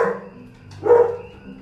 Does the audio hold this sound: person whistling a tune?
no